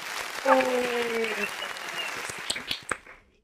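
A round of applause: dense, steady clapping lasting about three seconds, with a brief tonal hum early on, then a few sharper individual claps before it quickly fades out.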